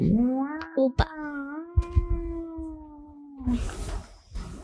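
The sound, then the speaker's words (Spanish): A voice imitates a police siren with one long, sustained wail that holds a fairly steady pitch for about three seconds. Brief clicks and knocks occur underneath, and a breathy, noisy rustle follows at the end. “Se empiezan a escuchar sirenas.”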